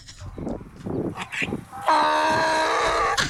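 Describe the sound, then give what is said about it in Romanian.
A donkey brays loudly, starting with a few choppy, wheezing gasps before breaking into a long, harsh, sustained honk that holds for over a second. “Măgarul este fratele mai mic și mai gălăgios al calului.”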